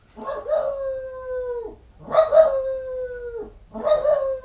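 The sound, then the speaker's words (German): A dog howls three times in a row, each long, wavering cry holding steady before sliding down in pitch, loud with short pauses between and no talking. “Jetzt bellt er in fünfhiesige Jamber.”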